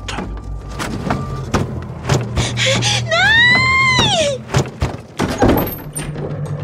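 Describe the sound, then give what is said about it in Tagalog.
A bed in a bedroom shaking and thumping violently, with a rapid, irregular series of loud thuds and knocks, while a person cries out in a long, rising and falling shout partway through. “Dahan-dahan akong tumayo papunta sa pintuan nang biglang yumugyog ng napakalakas ang kama ko.”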